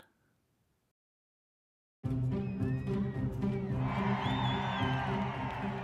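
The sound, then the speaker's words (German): After a brief near-silence, a loud crowd suddenly erupts into cheering, with many overlapping joyful shouts and whoops continuing densely to the end, as a small bank branch door opens at midnight on Berlin's Alexanderplatz in July 1990, when the West German D-Mark was introduced in the GDR. “Jubel brandet auf, Freudenschreie sind zu hören.”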